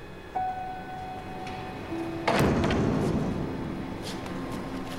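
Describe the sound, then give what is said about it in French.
The door of an apartment, number 722 in building C, opens with a brief creak and squeal, then shuts with a solid thud that leaves a lingering rattle, with no talking. “C'est la porte de mon appartement.”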